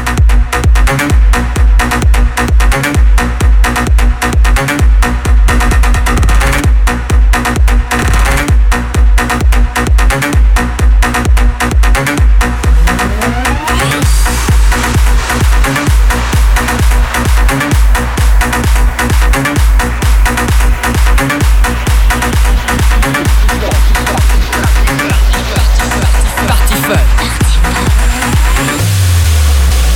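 A loud, driving electronic dance track, a stadium mix remix played on Fun Radio, with a steady pounding four-on-the-floor kick and dense synths that shift into a fuller, brighter section midway. No vocals.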